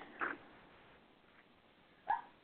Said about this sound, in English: But is there a dog barking? Yes, I'm sorry. She's whimpering.